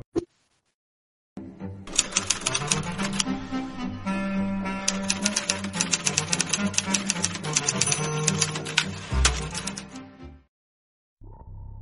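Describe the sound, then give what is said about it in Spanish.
A short transition jingle plays alone for about nine seconds: steady tones and chords under rapid, rhythmic typewriter-like clacking, fairly loud, ending abruptly before a voice begins talking. “Solamente habla un poquito más fuerte y vamos, y vamos a poner acá la cortinilla.”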